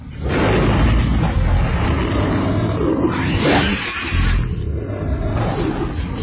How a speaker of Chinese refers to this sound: 就在这时候，一声长长的嚎叫打断了他们的争吵。这个奇怪而嘶哑的声音。